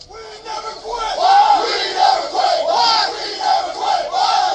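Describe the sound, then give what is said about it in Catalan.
Baseball players cheer and shout celebrating an 8-7 win, a loud, continuous swell of excited yells and whoops that rises and falls over several seconds. “Aquí sentim que com, com celebraven els jugadors aquest triomf, que era el, el We Never Win, what, no?”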